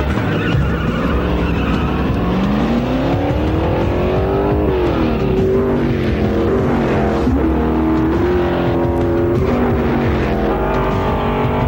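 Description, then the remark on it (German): A race car engine roars steadily, its pitch climbing and dipping as it revs through gears, with a faint hint of tire squeal and no voices. “viel Glück gehabt in der Steilkurve. Der Wagen hält nicht richtig”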